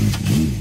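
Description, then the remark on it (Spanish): A small 30-horsepower motorcycle engine revs briefly on a highway, a buzzy, droning whine that rises and dips in pitch over a fraction of a second, steady and fairly loud with no talking. “Cuando una moto de 30 caballos va por la autopista suena así.”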